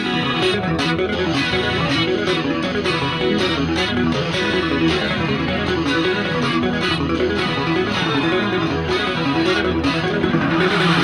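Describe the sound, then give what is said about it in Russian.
A loud math rock track with effects-laden, distorted guitars plays throughout, driven by busy, choppy drum hits in an intricate rhythm. No one speaks over it. “это сейчас мы слушаем грибницу Матрока, мне кажется, вообще.”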